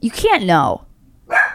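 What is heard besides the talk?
dog barking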